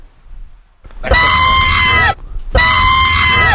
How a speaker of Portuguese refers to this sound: Não, Quando isso, a gente for é falar nome, isso... aperta o grito